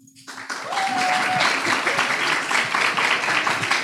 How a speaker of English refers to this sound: There's definitely no extra credit involved in that applause, all right?